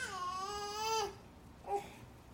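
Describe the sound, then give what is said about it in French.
A baby in a bedroom wails in one long, high, strained cry that breaks off, followed after a short pause by a brief second sob, with no talking. “Et on avance vers les pleurs.”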